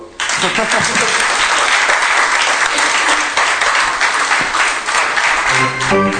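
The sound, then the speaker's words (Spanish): Loud, sustained applause from a crowd, a dense wash of clapping that starts abruptly and continues steadily for several seconds, with some faint voices mixed in toward the end. “Un aplauso.”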